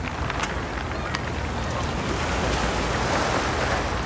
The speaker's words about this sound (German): Man ist hier direkt am Wasser, das hört man, das hat was sehr Entspanntes, dazu eben dieser geniale Blick rüber.